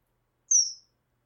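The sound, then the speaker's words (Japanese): A single short, high-pitched chirp from a kingfisher, a clear descending tweet lasting about a third of a second, heard alone against silence. “あの鳥見てくださいよ綺麗な鳥ですよ”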